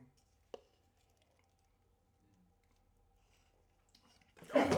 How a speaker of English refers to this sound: So you got Longboard Island Lager. Pour a little bit for our guests.